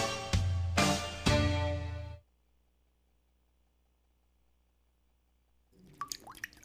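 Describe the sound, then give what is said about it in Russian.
Several loud, resonant water drips plink in quick succession, then a stretch of near silence before a few fainter, chirpy drops return at the end. “Вода. Жидкость без цвета, запаха и вкуса.”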